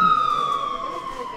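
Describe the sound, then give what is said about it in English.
An ambulance siren wails steadily, its tone sliding slowly downward in pitch, loud and continuous over faint background noise. “Typically, an overdose patient comes in from the community on an ambulance.”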